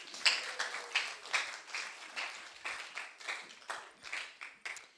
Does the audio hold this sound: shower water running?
no